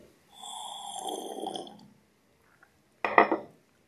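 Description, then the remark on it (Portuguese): A drawn-out slurping sip of water lasting over a second, then after a short pause a sharp clink as a glass is set down. No one speaks. “Só tomar um golinho d'água aqui.”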